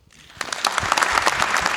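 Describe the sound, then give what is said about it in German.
A short burst of audience applause at 35C3 in Leipzig, welcoming a host and his guests: a dense patter of many clapping hands that swells in quickly and holds steady at a moderate level, with no voices over it. “Ähm, begrüßt mit einem kleinen Applaus Christian mit seinen Gästen zum Kohlenpott.”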